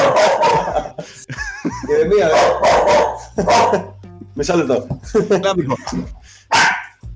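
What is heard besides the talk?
dog barking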